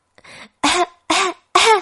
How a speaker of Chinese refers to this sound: 它直咳嗽。